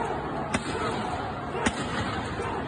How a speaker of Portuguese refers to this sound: Destaque a parte aí que o Recife, né, é dirigido pelo PSB, pelo Paulo Câmara, e foi o único lugar onde teve uma repressão é, aberta, né, com, com tiro de bala de borracha.